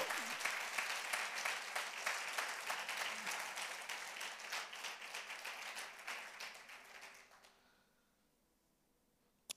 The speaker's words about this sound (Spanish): Un aplauso al Señor.